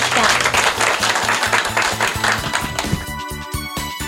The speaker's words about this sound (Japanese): 大きな拍手をお願いいたします